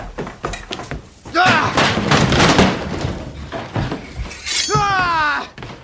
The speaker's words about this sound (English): He ran downstairs and knocked down the front door.